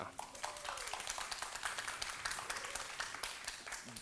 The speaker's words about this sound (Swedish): En applåd för kändisbingo tycker jag.